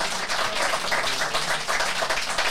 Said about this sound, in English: J'ai you should be proud, dude. Hands of applause